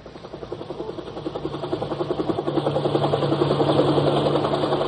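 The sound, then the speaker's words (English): A helicopter passes overhead, its rotor blades thumping in a fast, steady rhythm over a low engine drone that grows louder as it approaches. No voices. “Overhead, a helicopter windmill toward the shambles.”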